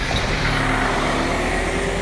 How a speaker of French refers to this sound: il y a un bus.